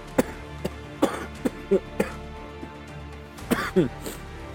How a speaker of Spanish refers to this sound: Bueno, después de esa intervención de tos, se, lo. ¡Ay! Hasta se me aclaró la voz con el agua.